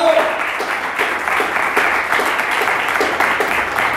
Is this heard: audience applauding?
yes